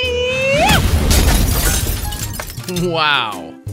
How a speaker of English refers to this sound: Some people like to keep a super shrimp as a pet. But be careful, sometimes they punch so hard, they break the glass of the fish tank.